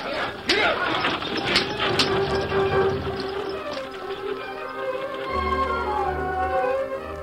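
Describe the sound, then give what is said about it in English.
A horse-drawn wagon train setting off from Fort Griswold: a dense, steady rumble of rolling wagons and creaking wheels with sharp clatters near the start, busy and fairly loud throughout, with indistinct voices mixed in. “An hour later, the main body of the train followed.”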